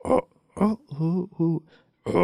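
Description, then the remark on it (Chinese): A person imitates the call of the White-eared night heron, known in Hainan as a bird that rarely calls, with five low, hooting "oh" sounds in a slightly uneven rhythm, each resonant and moderately loud, separated by short pauses. “好，今天最后我们来学一下这个海南间不喜欢叫的鸟到底怎么叫的。”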